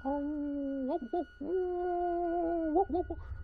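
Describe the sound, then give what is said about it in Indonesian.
A dog howls in long, drawn-out wavering notes, pausing briefly between them, heard from some distance over a low steady background rumble. “tapi suara cewek ini masih dengar ditambah yang dari jauh tuh suara anjing melolong”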